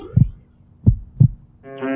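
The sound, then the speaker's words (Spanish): A few deep, muffled heartbeat thumps pulse, the last two coming as a quick pair, before a bright sustained tone swells in at the end, in a La Salle Radio station ident. No one speaks. “Tu latido.”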